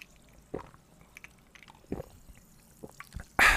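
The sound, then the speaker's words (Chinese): Sparkling water being poured and sipped for a toast: a handful of sharp wet clicks and drips over faint crackling, ending in a sudden loud burst of bright fizzing. No one speaks. “又到我们喝气泡水的时间了。在今天开始之前呢，我们还是要用气泡水嘎打给来干几杯哦，干几杯哦。”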